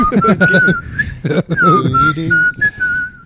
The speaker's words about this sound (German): Äh, versuch mal jetzt, wenn du lachst, zu pfeifen.